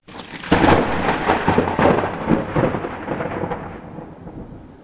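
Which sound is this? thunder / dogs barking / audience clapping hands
thunder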